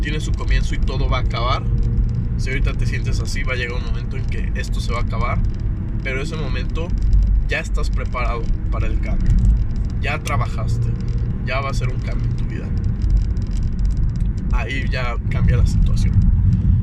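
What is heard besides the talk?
car driving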